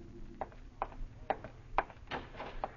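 Around six sharp, hollow knocks on a cottage door, somewhat soft and slightly unevenly spaced, sounding alone with no voices.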